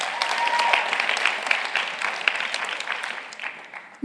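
An audience applauds steadily, a dense wash of many hands clapping at moderate loudness that gradually thins and fades toward the end.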